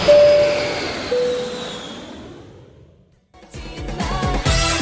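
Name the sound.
airplane taking off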